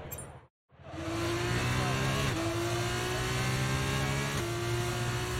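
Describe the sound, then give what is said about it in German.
Racing cars roar steadily during a race in a racing video game, the cars on the track driving ahead of the player: a sustained high engine drone with pitch shifts as gears change, loud after a brief moment of silence at the start. “Also das ist jetzt ein Rennen. Du siehst hier äh, die Autos auf der, auf der Strecke, die vor mir fahren.”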